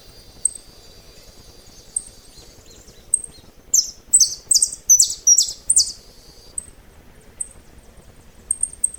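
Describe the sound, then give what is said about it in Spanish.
Birds trade rapid, tightly interlocking song phrases, the bright notes alternating so closely they blend into one continuous melody, with soft chirps before and after the burst. “Durante las grabaciones que han estudiado, los pájaros se turnaban para cantar frases de llamadas y respuestas muy unidas, que sonaban como si las emitiera una sola ave.”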